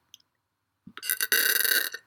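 A single loud, drawn-out burp from drinking water, starting with a low gulp and swelling into a harsh, raspy belch that lasts nearly a second before cutting off.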